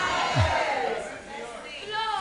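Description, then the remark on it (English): An audience jeers and catcalls, with many overlapping shouts and rising, whoop-like cries forming a loud, continuous din that swells again near the end. “So, you there, you are sitting down and just making cat calls.”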